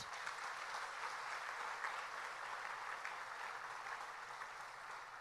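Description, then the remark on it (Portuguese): An audience applauds for Jesus, many hands clapping together in a dense, continuous wash of sound that holds at an even level throughout, with no voices standing out. “Que tal você dar um aplauso a Jesus?”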